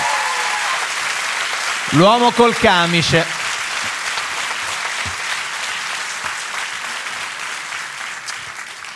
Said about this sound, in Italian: Beh, allora fate a questo punto un grandissimo applauso